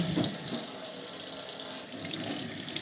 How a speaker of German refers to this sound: Dann hört sie mir jetzt zu, wie ich zum Beispiel meine Tomate wasche.